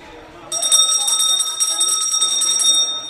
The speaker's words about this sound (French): Qu'est-ce qu'on entend là La cloche. Qu'est-ce que ça sonne euh, C'est la fin de la période. Ah, c'est la récréation Oui.